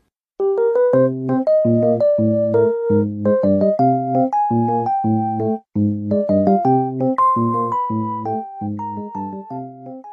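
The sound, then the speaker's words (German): A calm video game background theme, a standard piece that plays in scenes with no direct threat, such as walking around a club in Hamburg: soft, bell-like chords repeat in a steady rhythm beneath a gentle, higher melody, with a brief pause midway and no voices. “das hier zum Beispiel ist eines der Standardstücke, das häufiger im Spiel kommt”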